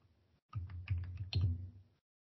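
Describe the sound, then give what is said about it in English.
A quick burst of rapid keyboard typing into a chat, a dense run of clicky keystrokes lasting about a second and a half, with no voices present. “Typing kind of fast, so you know it doesn't take up a lot of air time.”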